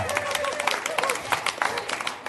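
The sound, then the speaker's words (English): A church audience breaks into a steady round of applause for a team leader about to read Bible verses, many hands clapping in a dense, crackling wash that holds at an even loudness throughout, with faint voices mixed in. “We don't normally do this when people come to read the Bible, but can we give her a big round of applause?”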